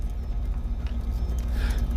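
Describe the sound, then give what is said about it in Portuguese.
Horse hooves clip-clop steadily over a low, rumbling background, as if pulling a cart, with the rhythmic beats fairly soft and continuous throughout. “Prepare-se para a gente comprar uma charrete.”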